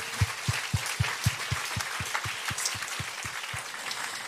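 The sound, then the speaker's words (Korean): An audience applauds steadily for about four seconds in thanks to God, a dense wash of clapping carried along by a regular, fast low thump that keeps time underneath. No one speaks. “우리, 이, 우리에게 이게 많은 열매, 많은 은혜를 주신 하나님께 다시 감사의 박수.”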